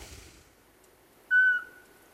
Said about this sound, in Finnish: Kiitoksia ja tässä taustalla taustalla muuten viheltää varpuspöllö. Pistäs vähän kovemmalle sitä.